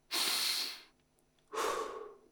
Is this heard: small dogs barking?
no